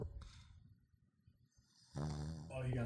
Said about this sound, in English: by the way i don't know if you can hear my dog is snoring in the background let me see if i can